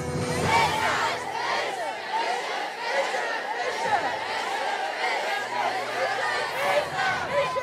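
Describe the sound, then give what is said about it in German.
A large crowd in Kappeln shouts a rapid German tongue twister together in unison, loud and dense with many overlapping voices, sustained throughout with a rhythmic chanting quality. “Und wenn ihr jetzt diesen Zungenbrecher noch hinbekommt, Heiko draußen, dann kann ich gleich in die Menge rufen”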